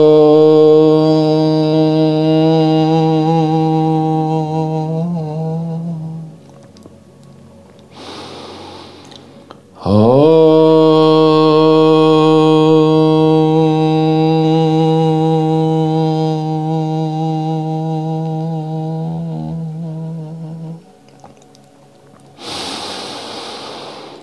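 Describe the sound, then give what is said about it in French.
A single voice chants a long, steady, low "Om" twice, each tone held for several seconds, with a deep audible breath before the second and another breath at the end. “À partir de là, on va faire juste un petit mantra homme trois fois afin d'intensifier la concentration et permettre un peu plus de lâcher prise, donc au travers de la respiration.”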